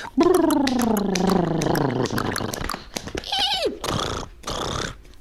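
A horse neighs loudly: one long, quavering whinny that slides downward, followed by a few breathy snorts and blowing sounds.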